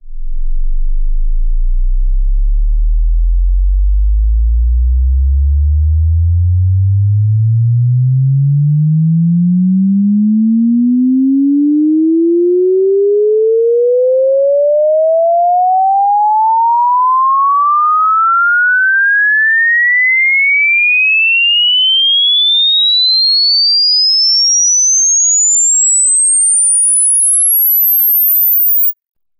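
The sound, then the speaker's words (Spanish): A pure sine tone glides steadily upward from a deep low hum to a piercing high whistle over about half a minute, continuous and evenly loud, with no voices. “Por ejemplo, el siguiente ejemplo, podrás ver y escuchar cómo van cambiando las frecuencias.”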